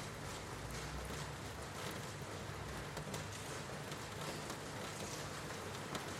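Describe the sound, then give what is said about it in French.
Steady rain patters against a window, a dense wash of tiny droplet taps with a soft low rumble underneath, even and unbroken throughout, with no voices. “Écoutez comment ces gouttes construisent ce fluide, ce liquide qui coule sur la fenêtre.”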